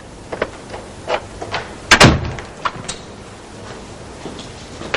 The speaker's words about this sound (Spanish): Llama antes de entrar. Abre la puerta silenciosamente y entra en el vestíbulo.